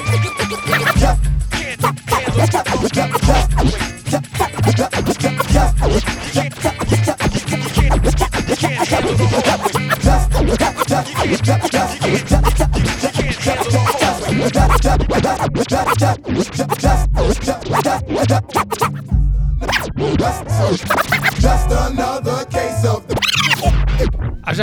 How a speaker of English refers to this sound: særlig sånn liksom, der helt på slutten at du står og scratcher